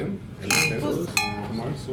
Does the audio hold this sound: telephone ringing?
no